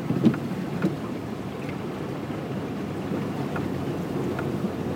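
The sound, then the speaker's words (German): A steady, rumbling wash of churning water with a low engine-like drone underneath, loud, with a few brief splashy surges as a car drives through floodwater on a flooded street, the water standing higher than the wheel rims. “Das heißt, ich werde jetzt hier durchs Wasser fahren das Wasser steht höher als bis zur Felge.”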